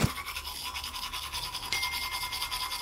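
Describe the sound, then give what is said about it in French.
Steady, rhythmic scrubbing of a toothbrush in someone's mouth in the morning, working back and forth, a bright bristly rasp that pulses quickly and continues throughout with no talking. “Le temps d'allumer mon portable, la brosse à dents dans la bouche.”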